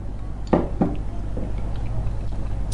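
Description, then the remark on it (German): Two quick sips of a drink in a row after a toast, soft wet slurping sounds over a low steady background hum, with no talking. “Ich würde sagen, wir heben mal die Gläser. Erheben die Gläser.”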